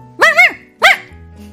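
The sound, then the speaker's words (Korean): A small dog, a pretty puppy named Ppui met on a neighbourhood walk in spring, barks twice, high-pitched and bright: a longer, wavering yap followed quickly by a shorter one, with no voices around. “눈앞에 너무나도 예쁜 강아지가 보였습니다.”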